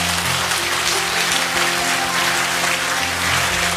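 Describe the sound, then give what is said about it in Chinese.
An audience at a church service applauds steadily after a prayer, giving the applause to God: a dense wash of many hands clapping at once that holds at an even, fairly loud level, with a soft low instrumental tone sustained underneath. “把掌声要归给神。”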